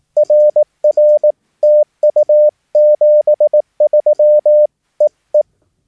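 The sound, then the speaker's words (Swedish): A steady single-pitch Morse code (CW) tone keys out the whole ending of a radio contact, with Roger, thank you and 73, as a rapid sequence of short dits and longer dahs in uneven groups, loud and clean with no voices, closing with a couple of brief dits (dit-dit). “Jag går igenom lite vad ditt, ditt betyder här då. Och det låter så här då i sin helhet.”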